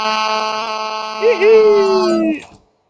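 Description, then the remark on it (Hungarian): A mobile phone ringtone plays for about two seconds, sustained electronic tones with a short gliding melody on top, fairly loud, then cuts off abruptly into silence. “Tetszik a csengő hangod.”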